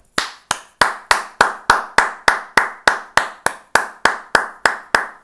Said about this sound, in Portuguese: Uma salva de palmas para James McAvoy.